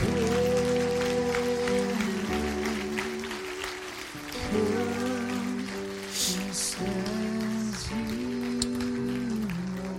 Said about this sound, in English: Get up. Get up. Get up. Come on, everybody. Open your eyes and clap right now. Come on, clap, clap, clap.